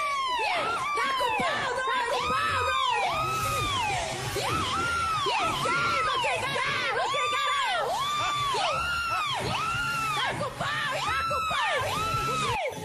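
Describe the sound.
A large crowd boos and jeers loudly and continuously, many voices overlapping in rising and falling wails that repeat in a steady, rhythmic surge throughout.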